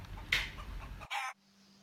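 chicken clucking

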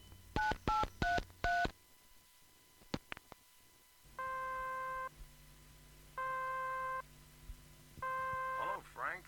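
telephone dialing tones

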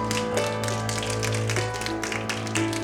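audience applauding

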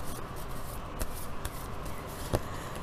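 tarot cards being shuffled

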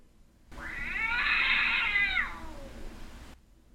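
cat meowing and caterwauling

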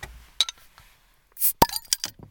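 glasses clinking

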